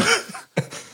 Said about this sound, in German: Also, Gesundheit.